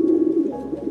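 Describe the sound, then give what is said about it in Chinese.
A pigeon coos outside the window, a low, soft, throaty warble that rolls steadily through the whole second with no voices over it. “清晨，赛弗睁开眼睛，伸了个懒腰，突然发现窗外有一只鸽子在叫。”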